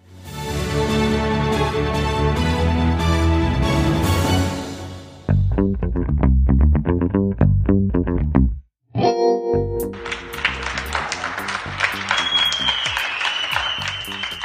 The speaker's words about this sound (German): Ja, so wie hier in Köln klang es gestern Abend in mehreren deutschen Städten. Die Menschen klatschen von den Balkonen und aus ihren Fenstern heraus, um sich bei den Menschen zu bedanken, die trotz der Corona-Krise weiterhin ganz normal zur Arbeit